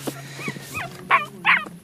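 A small dog whimpers with thin, rising whines, then lets out three sharp, high-pitched yapping barks in quick succession, fairly loud.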